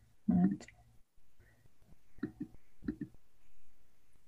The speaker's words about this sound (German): ja, dann nochmal würfeln.